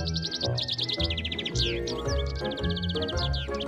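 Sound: bird chirping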